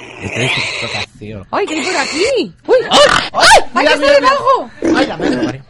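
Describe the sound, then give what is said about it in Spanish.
A human voice mimics a pig, letting out a string of loud snorting grunts and high squeals in quick bursts over several seconds. “Pues estáis escuchando un cerdo, ¿no?”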